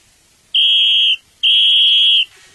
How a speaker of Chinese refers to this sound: 地面上有一位小朋友不走地下道，直接从马路穿过去，差点被车子撞到。警察看到了，就吹哨子警告他。